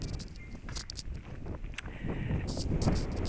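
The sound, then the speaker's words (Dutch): Wind buffets the microphone in a steady, rumbling roar that swells louder toward the end, with brief crackling bursts and scattered rustles on top. “Moment hoor, ik ga heel even uit de wind staan.”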